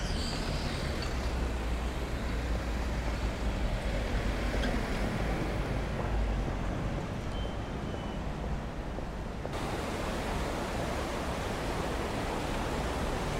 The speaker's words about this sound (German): Der Fluss, den ihr hier seht, ist nicht der Rhein. He? Das ist die Plessur.